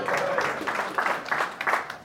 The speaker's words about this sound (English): So, booyah, little round of applause because I can't do that.